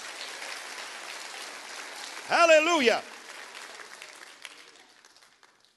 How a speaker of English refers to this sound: Clap your hands and rejoice and say, I'm on that side.